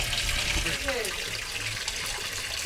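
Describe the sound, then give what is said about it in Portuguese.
River water rushes steadily through a channel, a continuous full hiss and wash that never lets up, with a brief faint voice heard beneath it. “Mas nós vamos por baixo agora, que eu quero ver o rio que passa ali.”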